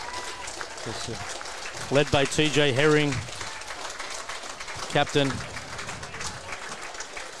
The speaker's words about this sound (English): There's some of the ones to keep an eye out for here today for all you Australian and, and Bunnies fans as the Bunnies get clapped onto the field.